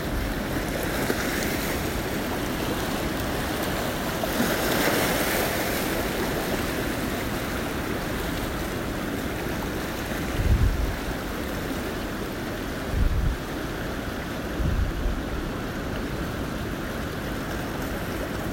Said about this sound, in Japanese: 自然が作り出す打ち寄せる波の音はあなたをリラックスさせてそしてあなたの潜在能力を引き出します